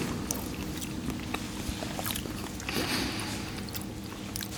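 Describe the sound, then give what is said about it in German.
Wet lip smacking and small mouth clicks while someone sips wine, soft and irregular over a steady low hum, with no talking. “Schmatzen und äh, trinken, das finde ich schön.”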